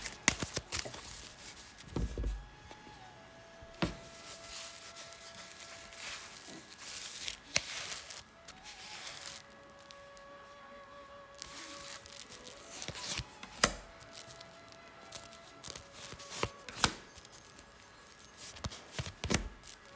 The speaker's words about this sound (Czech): A já už se dívám na vaši fotku, míchám u toho karty a my se spolu podíváme, co nám Tarot poví o vás dvou.